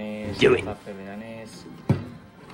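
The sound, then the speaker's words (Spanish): A short wooden thunk of a drawer sliding shut, with a softer knock earlier and a voice murmuring in the background; the drawers hold Sega Mega Drive game controllers in a video game collection. “Vale, Mega Drive, Me estresa un poco esos cajones. Qué bueno que son en cajones.”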